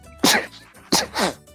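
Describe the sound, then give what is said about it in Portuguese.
Two sharp sneezes in quick succession, loud, each a sudden burst of breathy noise trailing into a short voiced tail, with quiet gaps between them. “Saúde. Desculpa.”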